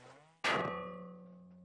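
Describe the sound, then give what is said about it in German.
A heavy 25-kilogram sledgehammer strikes a stuck ship propeller that will not come loose, with one loud metallic clang, leaving a steady, bell-like ring that fades slowly; the tail of an earlier ringing blow is heard first. “Auch der 25-Kilo-Hammer hilft nicht weiter.”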